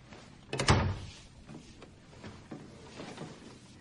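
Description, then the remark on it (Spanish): A door bangs shut with one loud, heavy thump early on as someone heads to the door and leaves, then fades into a low, quiet background with faint scattered movement sounds and no talking. “Se dirige a la puerta.”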